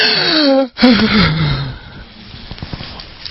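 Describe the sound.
A person acts out a sharp, startled gasp, a sudden breathy intake followed by a wavering vocal sound that trails off, mimicking shock.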